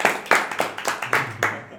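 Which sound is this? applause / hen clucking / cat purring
applause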